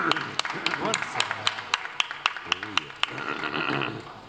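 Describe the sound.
A small audience applauds a band as it is introduced, sharp individual claps in an uneven patter lasting several seconds, with cheering and voices mixed in before the clapping thins out.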